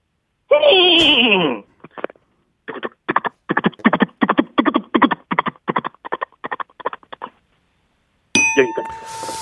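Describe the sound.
A person mimics a horse crying with a loud, wavering whinny, then clicks out a long, steady run of clip-clop hoofbeats with the mouth as the horse passes by. A bright chime rings at the end.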